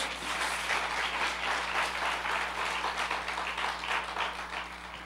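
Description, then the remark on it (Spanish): An audience applauding the Lord Jesus, a dense, steady wash of many hands clapping that holds at an even, loud level throughout, with a low constant hum underneath and no voices standing out. “Denle un fuerte aplauso al Señor Jesús.”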